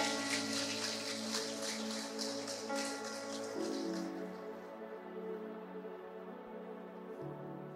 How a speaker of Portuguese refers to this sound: Você viu o tanto que nosso time está ligado? Vamos aplaudir ele.